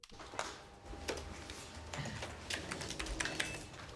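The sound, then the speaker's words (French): Rapid typing on a keyboard, a steady patter of sharp key clicks with a few heavier strokes, fairly quiet, continuing throughout without any voices. “Eh, vous avez des livres à retranscrire, dis donc.”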